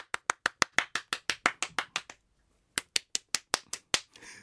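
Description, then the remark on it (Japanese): One person claps a quick, steady run of about a dozen sharp claps as a normal round of applause, pauses briefly, then adds a shorter follow-up burst of several more claps to liven things up themself, with no talking. “拍手です追い拍手みたいでしたじゃそうですそうですはいあのちょっとね、うん、普通の拍手と追い拍手でねちょっとね盛り上げてます自分でね”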